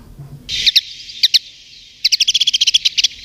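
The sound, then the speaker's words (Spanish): Bright, twittering song of a common linnet: a steady high buzzy trill broken by sharp chirps, then a rapid run of quick repeated notes toward the end, with no talking. “Fíjate, yo te he traído el canto de un pájaro que tiene un nombre del que se ha hecho mal uso, se ha abusado, porque se ha utilizado como eso, como un adjetivo despectivo, ¿verdad?”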